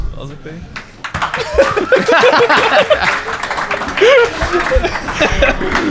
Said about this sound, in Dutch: Geen beter applaus dan een vragend applaus.